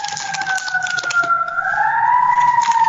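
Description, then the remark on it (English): An emergency vehicle siren wails in a long, loud, steady tone that slowly glides upward in pitch, with a faint noisy rumble beneath and no one speaking. “Here comes the morgue truck for the for the joke at the end of this Jesus.”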